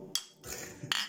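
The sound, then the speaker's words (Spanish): Glass beer bottles clink together in a toast: a few bright, ringing taps in quick succession, fairly quiet, with no talking over them. “Ah, es de cristal, vato.”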